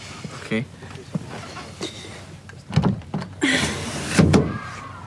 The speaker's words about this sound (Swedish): Men öppna fönstret då! Jag försöker! Det sitter hårt.